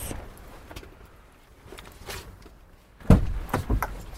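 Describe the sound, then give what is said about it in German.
Bus doors hiss and slide shut with a heavy thud near the end, before departure, after a few seconds of low engine rumble and faint clatter. Fairly loud, with no talking. “so, das ist jetzt der Bus.”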